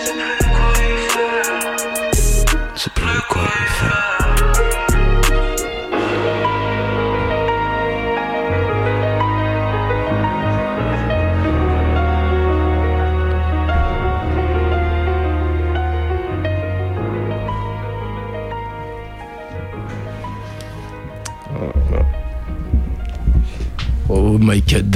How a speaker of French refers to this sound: Ouais, c'est toujours cette chill, tu connais. Petit son de chill pour commencer.